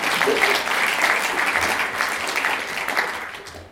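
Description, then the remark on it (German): An audience bursts into applause, a dense, steady wash of clapping hands that holds at a fairly even level for a few seconds before easing slightly at the end. “Äh, neben ihr, ähm, oder ganz, ganz hinten von ihr links, genau, klatschen Sie doch mal.”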